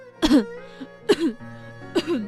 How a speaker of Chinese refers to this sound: 童话宫里出现了一个拄着拐杖的老公公，白头发，白胡子，腿脚直打颤。他一边慢吞吞地走，一边大声咳嗽。